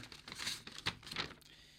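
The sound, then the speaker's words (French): A small slip of paper with a question written on it rustles and crinkles in short bursts as it is drawn at random from several slips and unfolded, a few quick crisp crackles, with no talking. “vous avez des, petits papiers devant vous, euh, c'est le moment de la question mystère, je vais vous demander d'en tirer un au hasard, celui qui vous plaît, de me lire la question qui est écrite dessus.”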